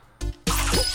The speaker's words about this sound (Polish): Dokładnie tak, po tym gwizdku.